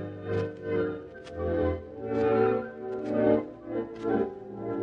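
Music playing from a small portable radio, its volume swelling and fading irregularly every second or so, loud then dipping, with no voices.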